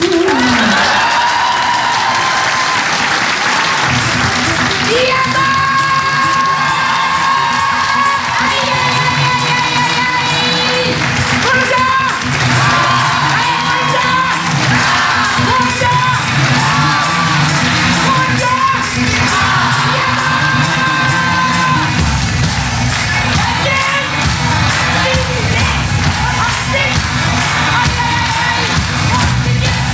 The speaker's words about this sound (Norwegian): Nå er det bare å lene seg tilbake og nyte showet. Men først ta vel imot barnebarnet mitt, Else Kåss Furuseth. Stor applaus.